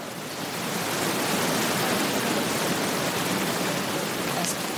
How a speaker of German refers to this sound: Ja, aber das Rauschen ist jetzt wieder da.